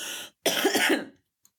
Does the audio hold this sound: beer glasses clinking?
no